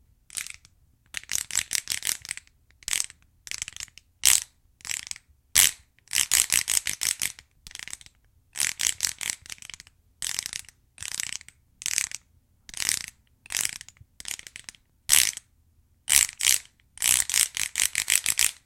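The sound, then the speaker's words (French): Wooden slats clack together in quick rattling bursts as a folding percussion instrument called a chenille is held at each side, folded in two and its halves slid against each other, played in short uneven flurries with brief pauses between, fairly loud, with no voices. “Ça fait que les lames de bois s'entrechoquent et produisent un son bizarre.”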